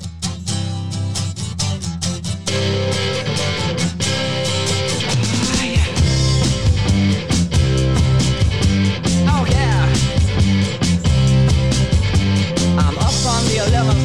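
A loud, full-band rock intro with strummed electric guitars, steady driving drums and bass, building energetically before the vocals come in.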